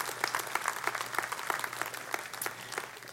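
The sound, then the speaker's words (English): A crowd claps steadily together to give Jesus a big hand, a dense spread of overlapping handclaps with sharp bursts throughout, sustained and moderately loud with a soft hum underneath. “Give Jesus a big hand today.”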